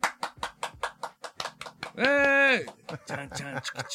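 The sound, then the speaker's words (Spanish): Applause for the host's father comes as a steady run of sharp, evenly spaced claps, about five per second, broken midway by a long sustained vocal shout, then scattered claps mixed with voices. “Y pido un fuerte aplauso desde donde quiera que estén para alguien que quiero mucho, que admiro y que pues me dio la vida.”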